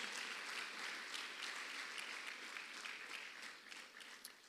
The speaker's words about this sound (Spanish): Dele palmas fuerte al Rey. Gloria a Dios.